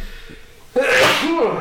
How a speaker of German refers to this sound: oh, ich muss niesen, weil Moment.